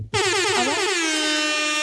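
A loud, blaring air horn erupts suddenly and holds as one sustained, piercing blast, with no talking over it.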